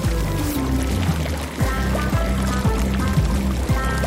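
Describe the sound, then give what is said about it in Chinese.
Water is added to a pot of cooking rice porridge whose water has boiled dry, pouring steadily for several seconds, a continuous splashing gush with a rising, hollow tone as the pot fills. “你看，这锅好着呢，那一定是水烧干了。我再加点水。”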